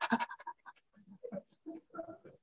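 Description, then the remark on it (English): A voice imitates a panting dog with quick, breathy huffs in an uneven rhythm, moderately loud, trailing into softer voiced grunts. “Ah, it's like a little dog. Sit. And then it, no, sit. And then it comes and, uh, and, uh, uh, and, and, it,”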